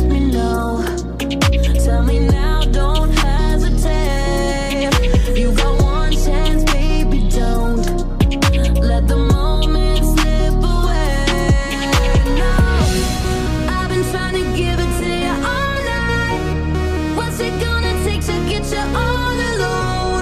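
A pop-rap track plays at full, steady loudness, with heavy bass hits, punchy percussive beats and layered synth melodies and vocals running throughout.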